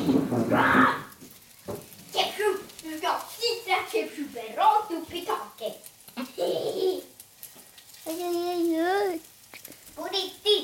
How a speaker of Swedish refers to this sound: Var är mamma? Mamman är ju här. Hon står ju och steker läskiga korvfingrar.